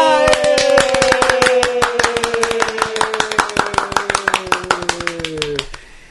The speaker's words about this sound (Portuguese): Palmas pra ela, galera!